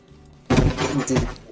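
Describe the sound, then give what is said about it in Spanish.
A heavy thud of a body hitting the ground abruptly, followed by about a second of rumbling, scraping clatter as the impact settles. It's fairly loud, with no talking. “Y se la recontrada contra el suelo.”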